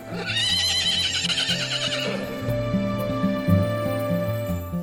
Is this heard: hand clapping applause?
no